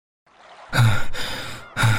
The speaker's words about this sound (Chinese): 沉重的喘息声传来，大汗淋漓的云舒从噩梦中被惊醒。